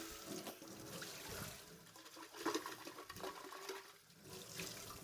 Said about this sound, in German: So, ich bin nicht äh, in der Nasszelle oder sowas, sondern ich mache hier den Mixer sauber.